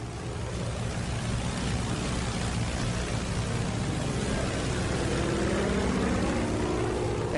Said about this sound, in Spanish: motor inyecta agua metanol directamente en los cilindros para refrigerar un motor que trabaja a plena potencia. El motor Pratt Whitney R2800 ruge con estos 300 caballos extras de potencia.